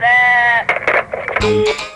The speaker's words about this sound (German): Naja, was sagt das Schaf zu diesem Schaf-Yoga?